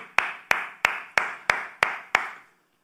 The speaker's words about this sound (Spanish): ¿Cuántos dicen amén? Dale un fuerte aplauso a aquel que vive por siempre.